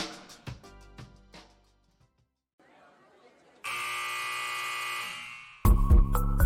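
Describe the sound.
A basketball final buzzer blares loudly and steadily for about two seconds, then a second, even harsher blast cuts in at the end, after a stretch of brief clattering and muffled voices.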